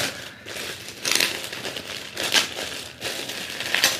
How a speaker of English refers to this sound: The rustle of paper, leather paper.